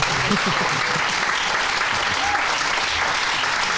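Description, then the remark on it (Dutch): An audience claps steadily for several seconds to welcome children's book author Manon Sikkel as a guest, a dense, even wash of applause with no breaks, and a few faint voices murmuring underneath. “Applaus.”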